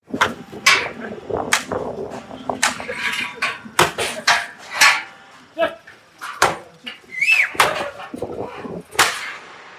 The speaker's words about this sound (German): Das waren die Schläge, mit denen Esel in den Schlachtbereich getrieben wurden, in einem der Schlachthäuser.